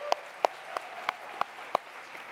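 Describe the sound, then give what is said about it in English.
A steady run of six sharp, distinct hand claps at an even pace, over a faint wash of background noise from a church audience clapping along to give the Lord a hand. “Yeah, give the Lord a hand for that.”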